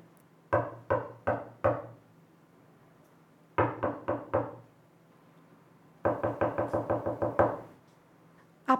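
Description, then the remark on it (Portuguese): Someone knocks on a door in three bursts: four firm raps, a pause, four more, then a quicker string of about eight. The knocks are fairly loud, with no voices. “A cigarra andou até o formigueiro, bateu na porta.”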